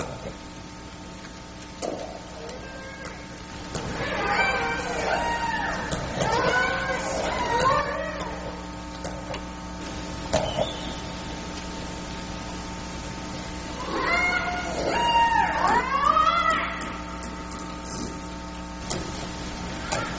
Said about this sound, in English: Bigg's killer whales are usually silent predators, but after capturing a marine mammal, these orcas often make lots of sounds, like these.